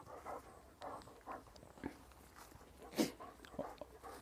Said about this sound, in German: Oh, da kommt der Hund. Komm her. ja, hey, jetzt bleibst du hier. Komm, Fuß.